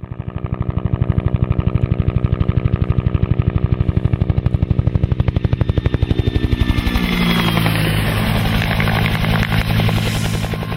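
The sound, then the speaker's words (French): A Bell UH-1B Huey helicopter roars, its rotor blades chopping in a fast, steady thump before the sound shifts into a smoother turbine whine as it passes overhead. No one speaks. “Les euh, grands amateurs d'aviation et d'hélicoptères auront peut-être même reconnu le son unique de cet appareil mythique servant, euh, entre autres pendant la guerre du Vietnam, le fameux euh, euh un appareil donc Bell UH-1-1B Huey”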